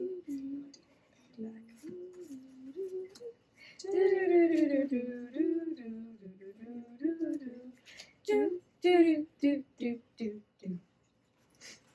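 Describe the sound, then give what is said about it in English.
A single voice sings the Jeopardy think music without words, moderately loud, the melody rising and falling before ending in a run of short, clipped notes. “Can you sing the Jeopardy song for me, please?”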